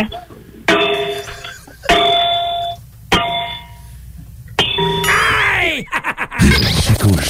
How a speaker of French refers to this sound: Donc, juste cogner sur la lampe si je frappe sur le, le socle, le, le pied, ça, c'est un drôle de son. OK. Non, je, je en tout cas, ça me semble être, être du bronze.